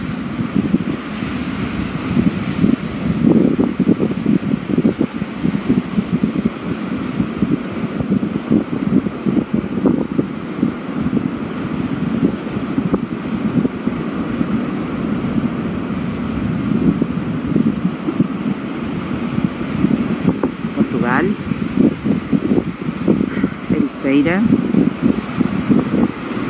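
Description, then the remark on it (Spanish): Windy beach ambience on a rather ugly day, looking out over a pretty beach from the area called the rivas, with beaches closed to entry: a steady roar of wind buffeting the microphone mixed with rolling surf, fluctuating in strength, with faint voices and a few brief high chirps near the end. “No se puede entrar a las playas ahora, esto es lo que se llaman las rivas Y de aquí tenés vista a esta playa que es muy bonita.”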